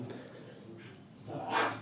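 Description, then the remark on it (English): The speaker's dogs bark faintly in the background, a short burst rising near the end over quiet murmuring, with no clear talk. “Sorry if you can hear my dogs in the in the background.”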